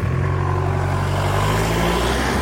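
A car passes with an engine hum, a steady low drone and broad road noise, holding loud throughout before easing slightly at the end. No one speaks.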